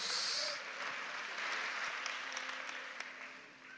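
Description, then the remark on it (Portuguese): A church audience applauds strongly to show they believe, a dense, continuous wash of clapping that starts slightly louder and holds at an even level throughout, with no voices heard. “Dê um aplauso bem forte se você crê.”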